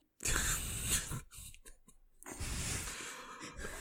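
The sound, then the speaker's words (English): A thirsty man sipping his drink: a long, noisy slurp, a few short broken sips with quiet gaps, then another sustained pull of liquid. No talking. “So, gotta take a sip of his drink first.”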